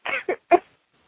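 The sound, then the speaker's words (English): A quick series of three short, harsh, fairly loud coughs, the first one longest, followed by silence. No one speaks. “Take a deep breath and cough it out.”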